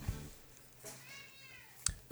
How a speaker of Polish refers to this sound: Gdzie miałczał.